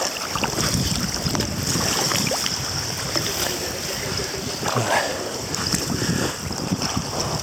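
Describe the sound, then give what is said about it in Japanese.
Continuous water splashing and sloshing as someone swims among floating ice at Shikaripesco, surface water about 0°C, recording while swimming up onto the ice, with irregular sharp splashes over a steady rushing background like wind on the microphone. “はい、今、氷の上を泳いで、撮影、撮影じゃないや、録音しています。”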